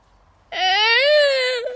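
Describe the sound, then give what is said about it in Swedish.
A child cries out in one long, high-pitched wail that starts abruptly after a brief quiet moment, loud, with no talking around it. “exakt, det var ett barn som grät eller något.”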